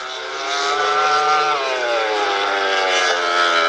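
A racing motorcycle engine screams loudly and steadily at high revs, its whining pitch dipping slightly partway through before holding, continuous for the whole moment with no voices.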